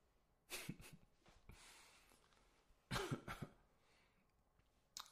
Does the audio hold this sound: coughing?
yes